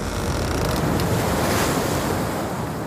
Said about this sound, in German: Gischt spritzt ihm ins Gesicht.